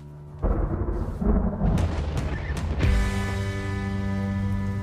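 Deep, rumbling thunder of an approaching hailstorm rolls in loudly, with sharp cracking bursts early on before settling into a sustained low roar with a steady droning hum underneath.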